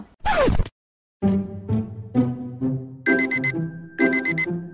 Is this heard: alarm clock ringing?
yes